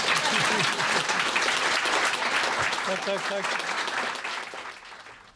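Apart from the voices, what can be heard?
applause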